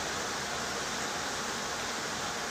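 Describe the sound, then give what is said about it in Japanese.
Heavy rain pours down in a dense, unbroken hiss, steady, with no voices and no change in intensity throughout. “この強い降 りの雨の音を聞いてたら”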